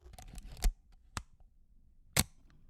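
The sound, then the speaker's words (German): Crisp mechanical clicks of a Leica M3 shutter release: a cluster of small clicks and rustles, then three sharp, bright snaps spaced about half a second to a second apart, with quiet between. “Ja, das wunderbare Geräusch der Leica M3.”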